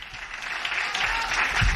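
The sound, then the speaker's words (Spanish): Steady applause in congratulation of Un City, a dense wash of many hands clapping at a constant, fairly loud level for the whole stretch, with no voices rising above it. “Yo me, voy a repetir porque quería felicitar a Un City, aunque lo hemos felicitado antes, pero quiero darle ese aplauso enorme porque sé lo que cuesta llegar ahí.”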